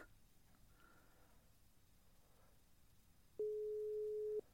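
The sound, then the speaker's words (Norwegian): A telephone ringback tone sounds once as a steady, clear beep lasting about a second during a call to Ottovågen, following a stretch of quiet, hissy line noise with no one speaking. “Vi ringer og hører hvordan det går i Ottovågen nå.”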